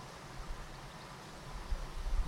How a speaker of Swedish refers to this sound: Hör ni? Vatten. Fågelkvitter. Lugn. Småland.